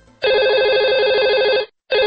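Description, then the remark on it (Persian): A telephone rings loudly with a warbling, trilling electronic tone at the start of a recorded call from a detained man, one long burst followed by a short silence and the start of another ring. No one speaks. “پری روزا به مناسبت آغاز دهه فجر بهش اجازه داده بودن یه تماسی بگیره از حال خودش خبر بده ما اون تلفن خوشبختانه تونستیم ضبط کنیم”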